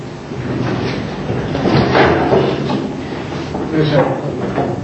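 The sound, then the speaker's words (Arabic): A chair is dragged and set down with a scraping clatter, then a second knock a moment later, with murmuring voices in the background. A speaker has asked for a chair, and it is being brought and handed over. “أنا هحتاج هنا كرسي ممكن تجيبوا لي كرسي اديني ده وخد اللي وراك مباشرة”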